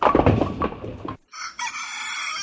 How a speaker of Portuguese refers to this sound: O que é isso aí, hein? Tem um galo cantando. Foi Meu despertador.